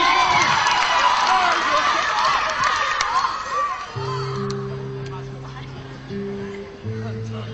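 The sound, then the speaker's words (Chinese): An audience at a singing competition applauds and cheers loudly to welcome the next challenger performing an original song, with shouts rising above the clapping; the crowd noise gradually fades as sustained musical chords begin about halfway through. “掌声有请。”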